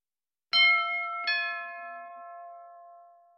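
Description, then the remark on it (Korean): A doorbell chimes a clear two-note ding-dong, the second tone following quickly after the first, then the ringing fades away slowly. Alone, with no voices. “그가 담배와 열쇠 돈을 주머니에 넣을 때 초인종이 울렸다.”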